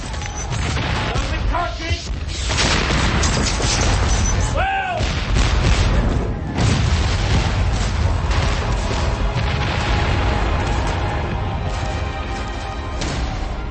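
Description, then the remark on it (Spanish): A dense, continuous British cannon bombardment of rebel defenses in New York City, September 1776, 2,500 cannonballs in an hour: heavy booms and crashes pile onto one another in a loud, unbroken roar, and a couple of short whistling tones rise briefly above the din. “En una hora, 2.500 balas de cañón británicas aplastan las defensas rebeldes.”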